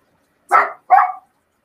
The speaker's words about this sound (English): He just likes to get the last word in. Yeah, yeah. We hear you. A dog that thinks he can talk.